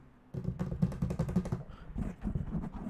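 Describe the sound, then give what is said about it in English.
A quick, light pattering of small taps and scratches as something scurries across a hard floor in a home, from behind the dining table into the kitchen, running steadily for a few seconds at moderate volume with no voices. “scurrying sound behind me. Whatever it was, it was moving from behind the dining table and into the kitchen.”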